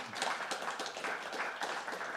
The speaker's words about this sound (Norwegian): Og vi skal gi dem en liten applaus innledningsvis.